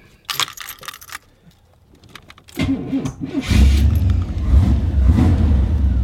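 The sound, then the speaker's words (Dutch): A few jangling metallic rattles, then a V8 car engine cranks and catches, settling into a loud, deep, steady rumble that continues to the end. The engine belongs to a full-size car rigged to be driven remotely with a controller. “Misschien kun je ook horen dat het een V8 is.”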